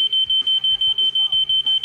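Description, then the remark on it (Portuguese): A smoke alarm beeps in a loud, shrill, high-pitched tone, pulsing rapidly and steadily about six times a second, with faint low rumbling beneath it. “O chefe do Corpo de Bombeiros da cidadezinha da Nova Zelândia, Colin Russell, disse que já aconteceram casos parecidos e que não é a primeira vez que desodorantes em spray ativam alarmes de incêndio.”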